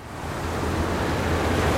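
Ocean waves surge against an inflatable raft adrift at sea north of Cape Verde in a steady, rushing wash of water, swelling slightly louder with no distinct single crash. Fairly loud, with no voices.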